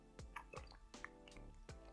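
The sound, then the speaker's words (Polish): A few quiet, wet gulping sips, spaced about every half second, someone swallowing the last mouthfuls of a beer with no talking. “Ja w sumie dopijam piwo i mogę iść siusiu, mogę kończyć.”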